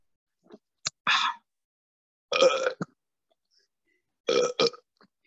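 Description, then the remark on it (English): Three loud burps with brief pauses between them, each a short guttural belch preceded by a quick gulp of air, in an otherwise quiet setting. “I have to get this burp out before I start talking.”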